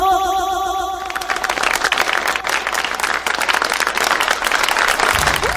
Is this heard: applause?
yes